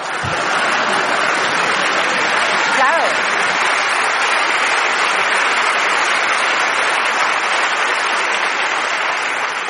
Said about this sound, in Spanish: Y ahora, por favor, seguid con esas palmas.